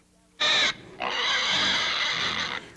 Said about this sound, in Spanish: una puerca recién parida con varios puerquitos.